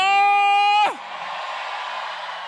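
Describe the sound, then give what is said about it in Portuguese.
A loud, sustained shout from one voice breaks off with a falling pitch, and a church audience's roar of cheering and yelling, a shout of jubilation at a worship service in Managua, carries on steadily underneath. “¿Dónde están los guerreros? ¿Dónde está el ejército de Jesucristo? Un grito de júbilo.”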